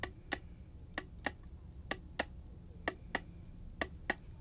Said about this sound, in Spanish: También oía a veces chirridos y un tic-tac acompasado.